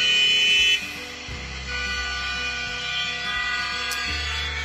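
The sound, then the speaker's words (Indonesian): Car horns blare in a traffic jam in Jakarta, opening with one loud sustained honk, then several overlapping horns keep sounding over a steady low rumble of idling engines. “Macet ya mang Emang bener nih Jakarta”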